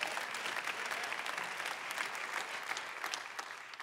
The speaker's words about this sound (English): All the married people are clapping.